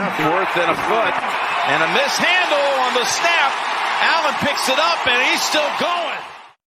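A loud, dense sports radio show bumper jingle, played by mistake, plays with swooping, shout-like vocal tones over a busy sports-style backing, then cuts off abruptly after roughly six seconds.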